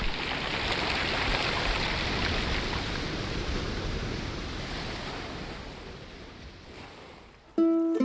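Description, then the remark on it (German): A stream of flowing water rushes and murmurs steadily, fairly loud, slowly easing off before a brief, different tonal sound cuts in at the very end. “Björn findet Wasser klingt nach lieblichem Plätschern eines Springbrunnens, nach lustvollem Murmeln eines Baches”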